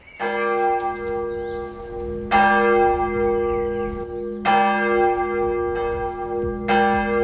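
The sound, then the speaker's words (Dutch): Church bells ring out from the tower of a village church dating from 1658 in Hensbroek, North Holland, Netherlands, not far from Alkmaar, with strong new strikes roughly every two seconds and long, humming overtones sustaining between them. No voices, just the full, resonant peal. “Ja, dit geluid klinkt voor mij heel herkenbaar. Ruim 20 jaar stond mijn bed namelijk op een meter of 60 van het kerkgebouw in Hensbroek, een dorp niet ver van Alkmaar.”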